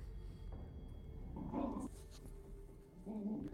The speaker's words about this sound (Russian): тебя слышно рычание собак? Да.